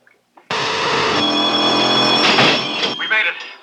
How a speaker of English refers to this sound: There goes the door.